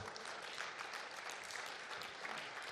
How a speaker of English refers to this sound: Let's give a applause to Lord Jesus Christ. Come on.